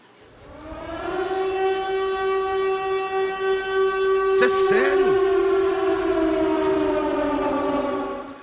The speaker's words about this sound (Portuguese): Toca o alarme de novo aí que eu fiquei preocupado agora. Toca aí, vai. Toca o alarme, pelo amor de Deus.